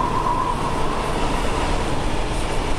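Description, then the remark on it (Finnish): A fast-moving train rumbles steadily along the tracks, heard from an open doorway of a wagon as the track ballast rushes past at frightening speed; a dense, continuous roar of wheels and rail noise with no pauses, plus a faint high whine early on. “Lähestyn taas oviaukkoa ja pelottavalla vauhdilla ohivilisevää raidesepeliä.”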